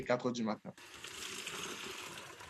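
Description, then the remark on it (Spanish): A voice speaks briefly, then a tap starts running, a steady rushing and splashing of water pouring from a tap into a container to collect water, continuing without pause. “Como no recibimos agua en nuestras casas, instalamos grifos muy cerca de los contenedores para recolectar agua.”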